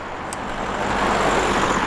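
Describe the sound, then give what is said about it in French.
A second car drives along a road in a valley by the Creuse river in France. Its broad tyre and engine rumble swells as it approaches, then holds steady and fairly loud. No one speaks. “Ah, une deuxième voiture.”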